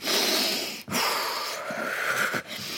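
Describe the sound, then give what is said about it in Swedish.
A person loudly imitates dramatic, sharp breath intakes: a few long, hissy, rasping gasps run together with brief breaks between them, and no talking. “Ja, andningen är det enda jag har svårt för av det.”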